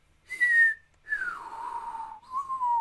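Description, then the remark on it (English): A person whistles a few clear, sustained notes, the pitch sliding down and then holding steady, with a pure, flute-like tone and no talking. “No, I'm whistling.”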